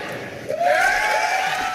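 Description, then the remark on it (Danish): A crowd breaks into cheering as hands are raised in answer to whether they would still support Donald Trump as Republican presidential candidate if convicted, swelling suddenly after a quieter start, with a rising whoop cutting above the steady roar of many voices that carries on to the end. “Ræk hånden i vejret, og så jubler publikum.”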